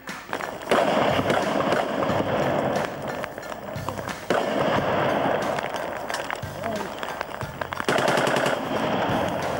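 Sniper gunfire in Mostar as Croatian snipers in the west sector fire at passers-by in the Muslim sector: loud, sharp cracks ring out at irregular intervals, some single and some in quick clusters, over a constant rushing, noisy background.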